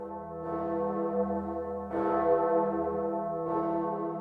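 church bells ringing

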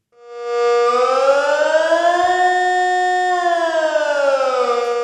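civil defense warning siren

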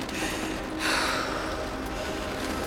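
heavy panting breaths

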